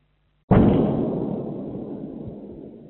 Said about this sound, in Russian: Во всяком случае, ее слышали местные жители, а звук взрыва попал даже на видео канала Мэш.